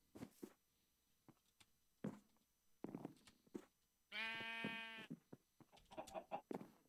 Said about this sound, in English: There's a sheep in my way.